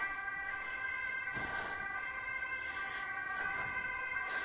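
An ambulance siren wails steadily as it passes, its tones holding strong and continuous over low traffic rumble, with no voices present.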